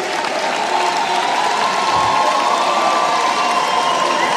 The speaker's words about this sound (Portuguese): Muito aplaudida, Simone Tebet.